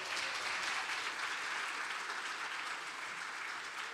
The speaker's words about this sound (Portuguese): Aplauda o Senhor Jesus aí, ó. Aí, ó.